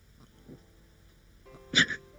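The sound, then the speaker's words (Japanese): Someone gulps a drink, a pink, berry-like fruit beer: a couple of soft, muffled swallows, then one louder, sharper throaty gulp near the end, with no talking. “ごくごく聞こえる”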